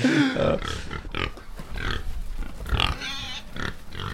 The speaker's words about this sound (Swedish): Och då hade vi det där grisljudet igen som markerar att klippet är slut